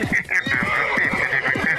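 A horse whinnies loudly, a high, quavering neigh held for about two seconds, with fluttering low snorts pulsing underneath.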